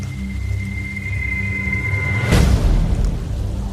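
Steady rain hisses continuously with a low rumbling undertone, and about two-thirds of the way through a sudden louder burst swells up, like a thunder crack, before the downpour settles back.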